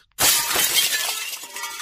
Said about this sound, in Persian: اما توی تاریکی دستش به لیوان روی میز کنار تخت خورد. لیوان افتاد و با صدای شبیه شلیک گلوله متلاشی شد.